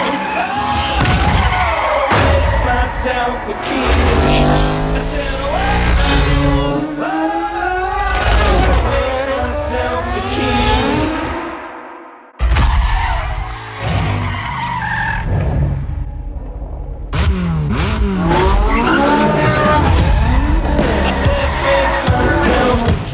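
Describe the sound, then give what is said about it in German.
Racing cars in an Xbox One racing video game roar past with loud, repeated tire squeals and skids, engines rising and falling in pitch, broken by a brief gap before the screeching resumes. “Wir besprechen heute das Rennspiel und zwar Forza Motorsport”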